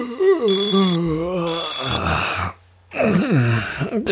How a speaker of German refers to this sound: Wecker. Na herrlich.